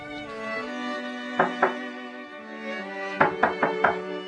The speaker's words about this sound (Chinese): 没想到，竟然有人在敲门。眼看父母怒不可支。孩子只好去开门。